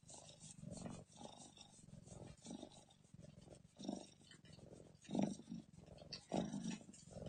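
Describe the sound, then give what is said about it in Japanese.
A cat trills repeatedly while playing, in soft, rolling bursts, a low purring chirp rising and falling in short rhythmic pulses with a few louder swells, no talking over it. “くるくるくるくるって言ってますね。”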